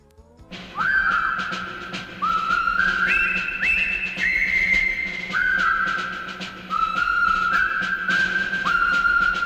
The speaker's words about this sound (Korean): 영화 콰이강의 다리에 등장한 보기 대령 행진곡 힘찬 휘파람 소리가 인상적이죠. 입을 오므리고 바람을 불어내는 소리라 성악의 일종으로 분류하기도 어렵고 악기라고 하기에도 애매한 소리인데요.